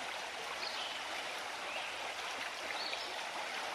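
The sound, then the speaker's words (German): A steady, continuous rush of a small forest stream babbling over stones and larger rocks, a broad bright hiss with small splashing bubbles, even in level with no voices. “Das Wasser tanzt über die Steine und größeren Felsen. Während das Wasser um die Steine und Felsen fließt, bilden sich ganz kleine Wellen.”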